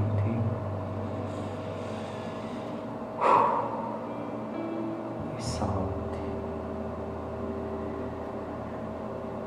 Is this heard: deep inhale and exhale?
yes